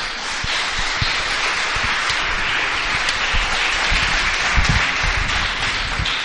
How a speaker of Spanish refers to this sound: Dele un aplauso al Señor esta tarde.